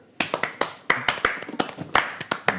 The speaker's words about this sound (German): Applaus für mich, den König von Hessen.